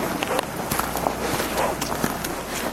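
Steady footsteps walk at an unhurried pace from house to house in the abolished village of Pučiņi, Sece parish, Jaunjelgava municipality, each step a short crunchy tap over a constant outdoor hiss, moderately loud, with no one talking.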